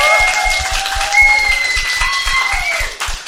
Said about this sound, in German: Applaus, applaudiert gleich weiter für Tarek Tesfu.